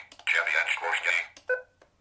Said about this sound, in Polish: Tu już jest koniec, dlatego mamy taki sygnał dźwiękowy.